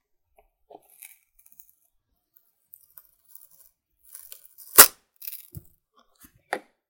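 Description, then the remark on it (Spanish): A Tetra Pak carton has its side flaps pulled open and is then pressed flat: scattered small crinkles and tearing scrapes, then a sharp loud crunch and a few quieter crackles. No one speaks. “Primero le destapo los laditos de la cajita de Trapac. Y luego la aplasto.”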